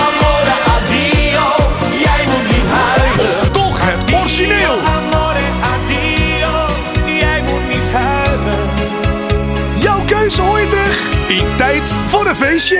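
A loud, upbeat Dutch pop song plays continuously, with a lead vocal singing over a steady bass line, full band backing and bright cymbals throughout.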